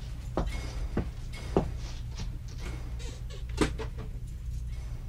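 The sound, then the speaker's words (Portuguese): A door is pulled shut and locked with a key, a handful of sharp wooden knocks and clicks spread out over a few seconds, over a steady low hum with no one talking. “Fecha a porta, Regina está bem?”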